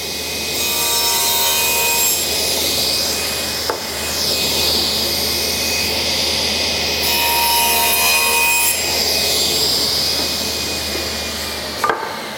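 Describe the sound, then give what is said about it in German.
Steady, continuous sawing of wooden boards to size, fairly loud, with a brief sharp knock partway through and another near the end; no voices. “Das heißt, ich mache jetzt ein bisschen Lärm. Ich säge das jetzt noch kurz zu.”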